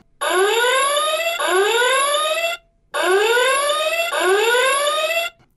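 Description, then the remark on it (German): A loud electronic flying-rotor alarm clock blares in rising, whooping sweeps, two bursts of about 2.5 seconds each separated by a short pause, with no talking; its rotor flies off toward the ceiling and must be found to silence it. “Zur Wegzeit macht das Ding erstmal solche fürchterlichen Geräusche.”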